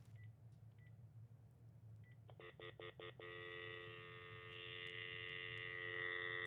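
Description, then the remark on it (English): A few faint beeps, then four quick telephone keypad tones in a rapid burst, followed by a steady, sustained dial tone from a phone on speaker over a low background hum. No one speaks. “Can you hear the dial tone?”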